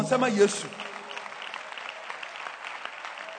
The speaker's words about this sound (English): Clap your hands for Jesus.